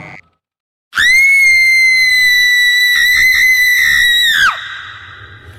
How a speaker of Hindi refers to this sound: अचानक वो चिल्ला उठी